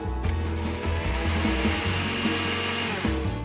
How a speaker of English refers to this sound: I'll add a half teaspoon of kosher salt and one and a quarter cups of all purpose flour. This is a really simple blintz batter, and you can use it for sweet blintzes or savory. And I'll blend this up until it's combined.